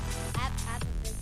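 burp

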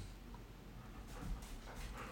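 dogs growling

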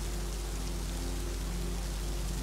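steady rain falling

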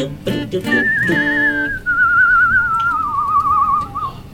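whistling

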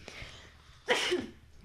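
sneeze

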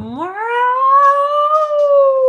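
cat meowing

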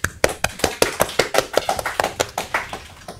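round of applause

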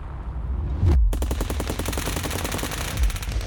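machine gun burst

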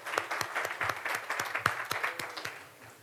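audience applause

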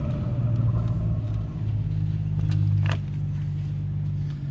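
car engine

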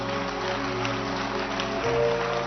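audience clapping hands

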